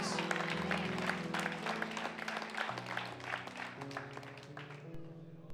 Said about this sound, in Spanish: Denle ese aplauso fuerte al Rey de Reyes.